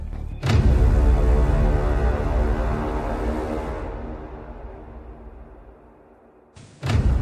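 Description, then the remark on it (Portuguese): A heavy door is unlocked with a key and opened with a sudden loud clunk, followed by a long, dense rumbling resonance that slowly fades over several seconds, then another sharp knock at the very end. No voices. “O Visconde usou a chave para abrir a porta daquela sala e, quando entrou, viu Nádia, de braços amarrados atrás das costas, encostada a uma janela.”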